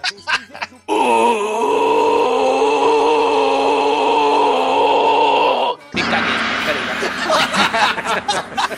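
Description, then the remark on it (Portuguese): A person imitates the deep-voiced scream of the film character Shang, one loud, strained, sustained yell held for about five seconds before breaking off, followed by quick talking. “O, o, o nosso querido Shang, ele grita grosso, grosso.”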